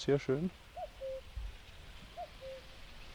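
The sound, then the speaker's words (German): A common cuckoo calls its two-note cuckoo twice in the background, evenly spaced, after a brief spoken remark at the start; the calls are soft but clear over quiet background. “Kuckuck haben wir jetzt da im Hintergrund”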